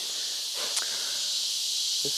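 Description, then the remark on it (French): A dense, continuous high-pitched buzz of cicadas fills the jungle air without a break as a few raindrops begin to fall, with a couple of brief, faint knocks or rustles underneath and no one talking. “Les cigales arrivent.”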